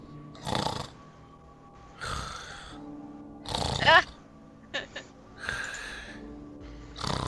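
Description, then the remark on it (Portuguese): A voice imitates people snoring inside a room, producing a series of rough, rhythmic snore sounds with snorts and breathy gasps, repeated about six times at moderate volume. “Você escuta pessoas roncando do lado de dentro dessa sala.”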